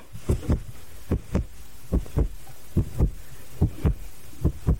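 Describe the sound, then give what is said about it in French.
A foley sound effect: a heartbeat-like lub-dub made by stretching fabric close to the microphone, six paired low thumps in a steady rhythm, close and fairly loud, with no voices. “Voilà, vous avez un cœur qui bat.”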